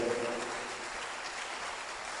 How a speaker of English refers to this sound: Clap for them. You don't know them, but clap for them. Clap for them. One day somebody will clap for you. Clap for them.